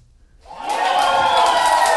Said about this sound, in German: Eigentlich kein Jubel. Ja. Jubel.